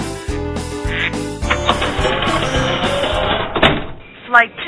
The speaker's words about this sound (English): We'll be right back after Bob gets the ducks out of his living room.